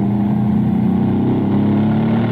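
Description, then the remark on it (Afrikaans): A race car engine drones steadily under load, its harmonics holding and slowly climbing in pitch as it powers uphill, loud and continuous with no voices. “And again, going uphill so you get a real good feeling of this beast powering uphill.”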